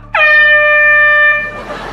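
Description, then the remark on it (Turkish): A single loud, blaring honk like an air horn holds steady for just over a second, then cuts off, leaving a low background rumble. “Abi bu da havalı korna sesi gibi ya.”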